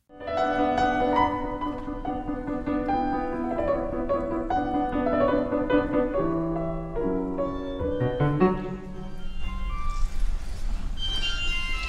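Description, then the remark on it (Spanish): A loud, tinkly electronic melody plays continuously as a mobile phone ringtone goes off as an interruption, its bright repeating tune filling the whole stretch before growing noisier near the end, with no one speaking. “Ahí el móvil, que bajón, qué bajón, de verdad.”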